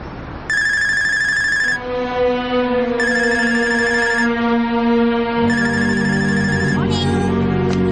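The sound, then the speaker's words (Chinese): A telephone rings unanswered in three evenly spaced, bright electronic bursts, each about a second long, over a steady low musical drone; no voices are heard. “这时候不接电话，社长你要倒大霉了！”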